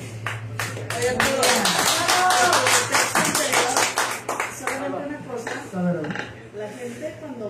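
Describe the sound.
A burst of audience applause, dense overlapping claps building for a few seconds then thinning out into scattered claps, with some voices chatting and a low steady hum underneath.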